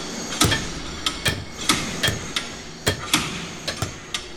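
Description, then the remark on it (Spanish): Many hammers pound away at once on a demolition site around still-occupied houses, sharp metallic strikes landing in an irregular overlapping rhythm, some louder than others, with no voices; about 40 workers use hammers, chisels, sledgehammers, shovels and picks. “Una orquesta de martillos trabajando todo el día.”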